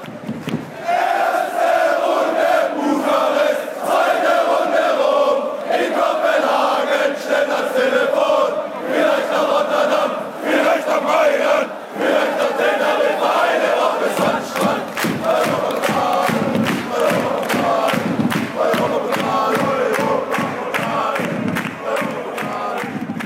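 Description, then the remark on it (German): A large crowd of Karlsruher SC football fans chants their European Cup song in unison, listing the rounds of a UEFA Cup campaign, loud and sustained, with rhythmic clapping joining in during the second half. “den Europapokalgesang vom Karlsruher SC”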